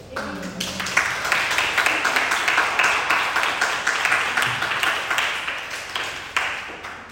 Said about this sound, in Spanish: un aplauso a Dios?